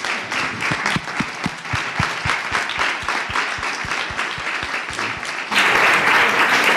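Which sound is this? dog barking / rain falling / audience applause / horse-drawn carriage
audience applause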